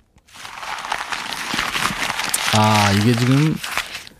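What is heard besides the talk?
paper being crumpled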